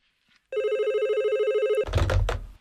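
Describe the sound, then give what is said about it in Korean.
A loud hotline telephone bell, a direct line from an official residence, rings in an office duty room at about 11 p.m. on Christmas Eve, continuously for over a second with a fast trilling pulse, then cuts off into a brief clattering rustle, like a handset being picked up. “근데 밤 11시쯤 관사에서 직통으로 걸려오는 핫라인의 전화 벨소리가 요란하게 울려대더군요.”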